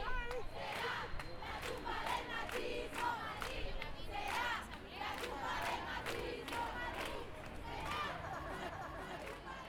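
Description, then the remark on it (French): A large crowd at a feminist demonstration in Madrid on 8 March 2022, in icy weather, chants and shouts in rhythmic bursts, many voices rising and falling together over a constant roar of street noise, loud and sustained throughout. “Malgré un climat glacial, une guerre aux portes de l'Europe et une division interne au sein du féminisme espagnol, on était nombreuses et nombreux à manifester.”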